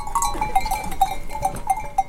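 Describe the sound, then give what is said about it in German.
A herd of goats led by farmers from neighbouring pastures to the Vjosa River, bells clinking irregularly, bright metallic tinkles repeating every half second or so over a soft outdoor background. “Die Bauern führen ihr Vieh von den angrenzenden Weiden an den Fluss.”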